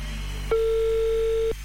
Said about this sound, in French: Deuxième sonnerie à Avanche.